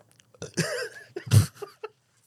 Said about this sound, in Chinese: 我这次最骂你打嗝，然后两集都 到底要打 嗝。 几次？